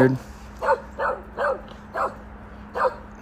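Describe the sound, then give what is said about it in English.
A dog barks five times in a loose, uneven series of short, mid-pitched woofs, moderately loud, over a faint steady background hum. “Don't do it, dog.”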